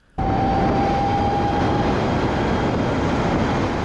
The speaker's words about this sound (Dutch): Ja, dat was de elektrische Harley Davidson Livewire.